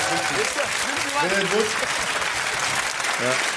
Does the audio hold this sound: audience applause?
yes